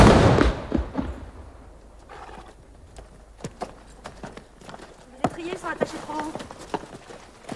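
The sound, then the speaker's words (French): A horse's hooves clop in an uneven trotting rhythm as it is driven at a fast pace, sharp knocks, with some faint vocal sounds in the background toward the end. “T'as pas dit qu'il fallait faire vite J'espère qu'il va pas me jeter dans le fossé. J'ai encore jamais fait courir à cheval.”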